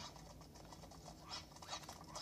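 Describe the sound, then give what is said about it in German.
Fluttery bursts of flapping wings and scuffling from a group of running birds in a video game, fairly quiet and growing busier toward the end, over a low steady background hum. “Diese laufenden Vögel haben mich fast umgerannt.”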